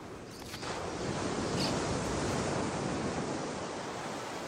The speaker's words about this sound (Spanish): El mar está tranquilo y azul. Se desliza con suavidad hasta la orilla, donde lentamente las olas se deshacen mientras escucha el sonido de la espuma.